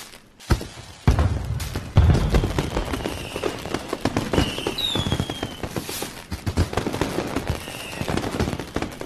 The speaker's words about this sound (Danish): Der er fyrværkeri. Ja. Lad du mærke til den trykfordeling. øhm, der blev selvfølgelig fejret i går, at Brøndby for første gang i 16 år nu igen kan kalde sig danske mestre i fodbold.